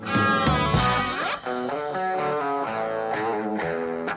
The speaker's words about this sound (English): And it announces itself with a strong opening riff that echoes throughout the song, almost creating a drone like effect. The bass guitar mimics this pattern in parts